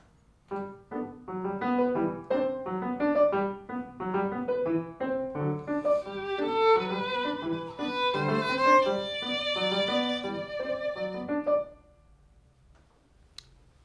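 A short phrase of violin melody over a steady, plucky piano accompaniment. The violin line rises and grows brighter midway, then both stop together, leaving near silence and a faint click.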